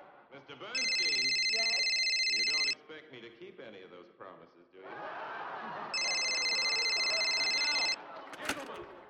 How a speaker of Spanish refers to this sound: Los trinches celulares, bueno, ya lo habías dicho, pero también cuando suenan, ¿no? Sí. El típico.